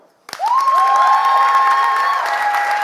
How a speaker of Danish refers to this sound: Vil I helst høre min historie, så klapper I nu.